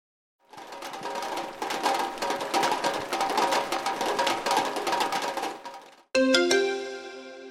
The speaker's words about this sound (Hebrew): זה היה גשם הפוגע בגג של פח.